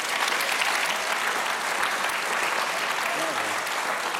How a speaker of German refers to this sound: Kommt euer Applaus